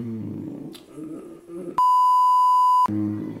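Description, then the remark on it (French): A loud, steady censor bleep lasting about a second cuts abruptly into a man's talking, covering a person's real name, then the voice resumes right after the tone stops. “Tu ne je sais plus, on coupera. On euh, je biperai, je son vrai nom.”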